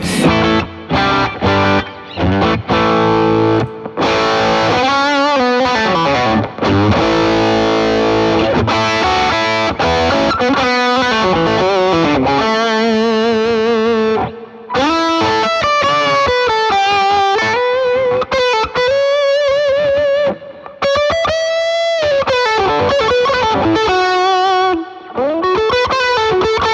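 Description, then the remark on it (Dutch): Electric guitar soaked in heavy reverb, with loud, sustained distorted notes, sliding bends and washy chorus-like shimmer playing continuously for nearly half a minute, with no voices. “eh, Veel galm.”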